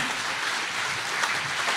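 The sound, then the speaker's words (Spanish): A crowd applauds steadily, many hands clapping together in a dense, continuous wash of sound with no voices over it, holding an even level throughout. “Si usted va a aplaudir a...”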